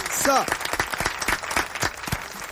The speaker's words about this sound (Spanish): Este, la primera banda que viene a tocar en vivo acá al aire. Podemos aplaudir, claro. Standing ovation.